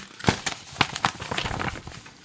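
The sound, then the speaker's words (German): The paper pages of a script rustle and crinkle, with a few sharp crackling bursts followed by softer shuffling as pages are handled, no voices present. “Es raschelt das Drehbuch.”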